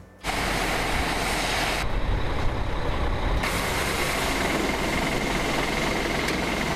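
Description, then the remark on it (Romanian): A heavy truck carrying toilet paper rumbles loudly and steadily on a highway in Australia, a continuous deep roar with a hissing wash of road noise that briefly thins before returning, with no voices. “Tot în Australia un camion cu hârtie igienică a luat foc pe autostradă”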